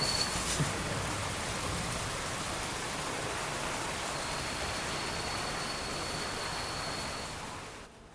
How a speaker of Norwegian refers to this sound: Den fuktige lukten av våt bark, duften av mørk jord, lyden av raslende vann, skjelvingen til store løvblader og kvitringen til sjeldne, skjulte fugler.